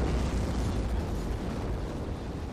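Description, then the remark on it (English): A deep, sustained roar like the rumbling aftermath of a massive explosion, heavy in the low end and steady throughout, loud and dense with no voices. “Sometimes when I'm lying awake at night and hear the L in the distance, I think, what if the roar from the train is actually the roar from an atomic bomb?”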